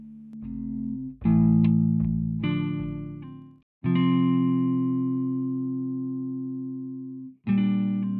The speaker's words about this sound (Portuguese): Toca a vinheta, gente!